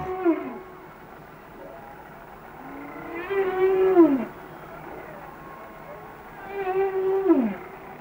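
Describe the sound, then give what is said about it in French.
Underwater whale calls: two long, moaning tonal cries that rise and bend in pitch, each lasting a couple of seconds, over a low murky hum. No one speaks. “Et là, on entend des enregistrements de bruit de baleines enregistrés euh, sous l'eau.”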